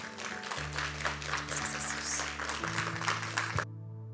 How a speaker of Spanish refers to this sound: Vamos a darle un fuerte aplauso a nuestro Señor.